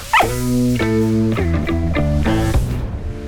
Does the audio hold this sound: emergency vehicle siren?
no